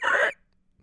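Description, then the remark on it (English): A person vocally imitates a car window rolling shut: one short, breathy, buzzing burst, cutting off abruptly into near silence. “That's the sound of the window closing.”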